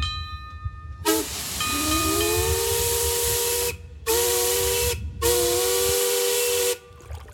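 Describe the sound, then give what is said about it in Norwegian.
The steam whistle of the paddle steamer Skibladner on Lake Mjøsa sounds three long, loud blasts, a rich hooting chord over a breathy hiss, the first lasting several seconds and two shorter ones following after brief pauses. No one speaks. “Lyden av skiblander.”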